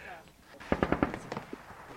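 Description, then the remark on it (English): A rapid burst of machine gun fire from armoured fighting vehicles during pre-deployment confirmation training, about four sharp evenly spaced shots followed by a few more scattered cracks, over a faint background murmur. “So there's gunfire just there. Yeah, what you can hear there is uh, our AFVs conducting their pre deployment confirmation training.”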